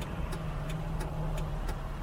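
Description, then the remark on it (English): A car's low, steady engine rumble fills the cabin while in traffic, with a soft regular ticking, like a turn signal, clicking about three times a second over the hum. “Oh, come on, traffic. I'm not in the mood for all this.”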